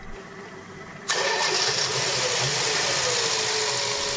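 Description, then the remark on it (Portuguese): The engine of an old Renault 4L radio reporting car cranks briefly and catches at about one second, then settles into a steady, rough, loud idle with no talking. “O grande carro de reportagem da Antena 1 era uma velhinha quadrel”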